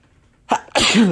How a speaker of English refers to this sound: Sorry, I had to sneeze, excuse me.